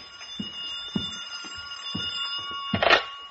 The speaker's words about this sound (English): It was past two when I got back to my apartment, and the phone was screaming for help.